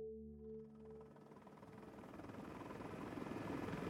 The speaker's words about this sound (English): On this November morning, weather conditions are ideal for flying. Sat in the back of the chopper, the warm air ruffles